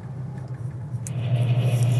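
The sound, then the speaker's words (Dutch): The engine of a 911 sports car drones with a deep, steady hum that builds louder over the two seconds, strong, with no one talking over it. “Zometeen nog eens even het geluid laten horen om van 1 naar 5 te gaan eenmaal 140, 150 is het ook wel heel leuk om eventjes gas te geven met dit prachtige speelgoed.”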